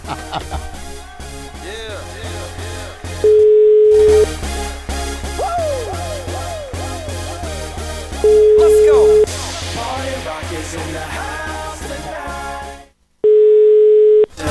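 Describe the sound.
An outgoing call's ringing tone: three steady, mid-pitched one-second beeps, spaced about five seconds apart, cutting cleanly through a busy bed of music and talking voices.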